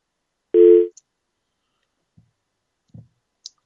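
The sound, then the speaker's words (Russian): A short, loud electronic telephone tone sounds once, followed by a few faint, scattered clicks on the line while the connection is made. No one speaks. “А, пока э, происходит соединение”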